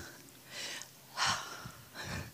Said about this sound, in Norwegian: Jeg vet ikke hvor du er når du kom hit, men jeg tenker, skal vi ta en sånn pust?